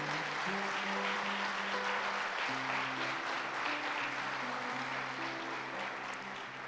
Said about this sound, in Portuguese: Enquanto você se colocar, pode aplaudir Jesus.